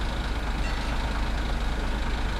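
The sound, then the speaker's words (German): A heavy engine of a line 70 city bus idles steadily at 11 a.m., a constant low rumble with a broad hiss over it and no change in level, with no voices. “Bus 70, 11 Uhr.”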